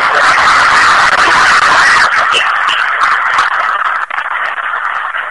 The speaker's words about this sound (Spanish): También solicito un fuerte aplauso para el perro.